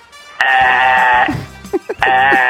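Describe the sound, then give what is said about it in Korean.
A voice imitates a coffee machine in a voice-impression contest: a loud, steady buzzing drone, then several short sputtering gurgles, and the drone returns, alone. “커피 머신하고 커피 머신 갑니다.”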